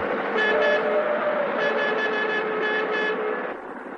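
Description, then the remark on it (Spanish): A heavy truck rumbles along, weaving across the middle of the road to block another vehicle trying to overtake, while that vehicle's driver sounds a loud, blaring horn in several sustained bursts, pausing briefly between blasts before fading slightly at the end. “decide colocarse en el centro de la calzada haciendo eses con el camión.”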